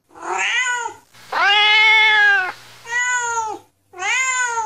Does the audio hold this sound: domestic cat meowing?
yes